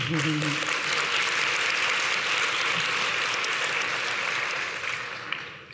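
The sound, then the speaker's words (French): Sustained audience applause, a dense wash of many hands clapping at steady volume for several seconds before thinning out slightly at the end. “On vous applaudit.”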